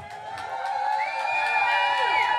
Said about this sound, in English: On l'applaudit bien fort, s'il vous plaît.